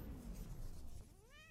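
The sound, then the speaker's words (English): A single cat meow rises sharply near the end, clear, following a second of low rumbling background noise. “So and then he turns back into a kitty.”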